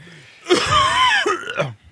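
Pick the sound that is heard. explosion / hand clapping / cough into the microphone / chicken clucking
cough into the microphone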